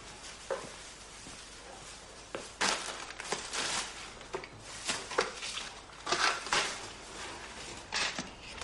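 A plastic garbage bag crinkles and rustles in irregular bursts as a table is cleared, with some soft clattering like things being swept off the table. No one speaks.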